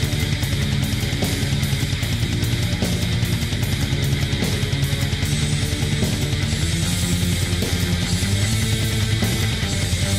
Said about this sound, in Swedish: … heter nya skivan från de här brasiljackarna. Och det här är öppningsspåret.